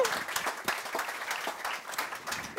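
Steady audience applause fills the room, a dense patter of many hands clapping at once, fairly loud and continuous without any voices over it.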